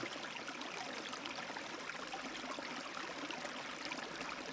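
A river stream flows steadily, a soft continuous rush and babble of water with no pauses or voices, heard at a low, even level throughout.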